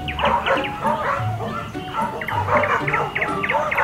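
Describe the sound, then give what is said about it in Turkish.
At a dog park, Bico meets dogs he knew from his days living on the streets and they sniff each other, with excited yips, whimpers and short barks tumbling over one another in a steady, lively stream. “Bico köpek parkında sokaklarda yaşadığı günlerde takıldığı arkadaşlarına denk gelir. Hasretle koklaşırlar.”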